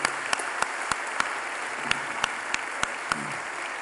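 An audience applauds steadily, a dense wash of many hands clapping with a few sharper, louder claps standing out at irregular moments throughout.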